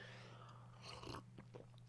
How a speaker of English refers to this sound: Anyway, sorry, that's me sipping a cup of tea. Uh, actually, it's coffee, decaf.